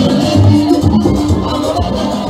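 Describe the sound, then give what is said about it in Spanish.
A large crowd claps and cheers loudly and continuously for a couple of seconds for a float carrying an inflatable Santa and a Santa in his sleigh with reindeer, the dense applause mixed with murmuring voices and some low tonal sound in the background. “Vamos a darles un aplauso. Un aplauso para ellos.”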